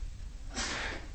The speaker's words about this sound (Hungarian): Egészségedre. Meglepően keveset trüsszögtök. Meg köhögtök.